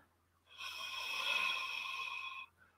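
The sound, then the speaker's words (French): A single deep inhale taken to release tension in a breathing demonstration, a steady airy rush lasting about two seconds that swells gently and then cuts off, heard on its own with no talking. “si j'inspire,”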